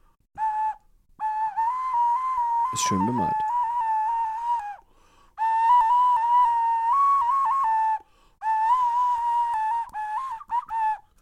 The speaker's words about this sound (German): das ist eine Keramikflöte und je nachdem, wie man sie dreht, sieht man ein anderes Tier. Sieht ganz verrückt aus, so insgesamt. Und klingt so.